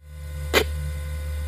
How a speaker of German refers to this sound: Und was wir da hören, ist ein Ball, der in die Bäume geschlagen wird. Das Ganze wird dann von einem Kommentator kommentiert. Das ist ein digitalisiertes Sprachsample.